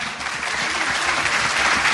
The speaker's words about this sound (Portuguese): Salva de palmas para os nossos participantes.